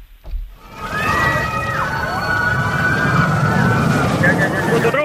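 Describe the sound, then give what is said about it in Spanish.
A roller coaster thunders along its track: a loud, steady rumble rolls in after a brief quiet moment and holds, with high wavering squeals and cries riding over it. “¿Una montaña rusa?”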